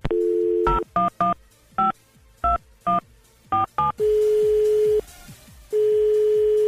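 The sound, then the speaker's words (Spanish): A phone keypad beeps out a quick, uneven series of about eight dialing tones, clear, after a brief steady tone, followed by long droning line tones with a short gap between them. “Dame, dame su teléfono, por favor. 476-132.”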